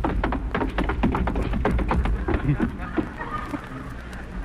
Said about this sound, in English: He's got me a little knock-kneed running down those stairs, haven't I?